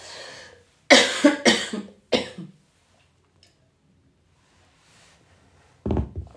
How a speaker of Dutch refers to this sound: Eh, dus dat gekuch heb je dan maar even voor lief te nemen. Ik ga nog één slok nemen in de hoop dat dat de laatste minuut me door gaat helpen.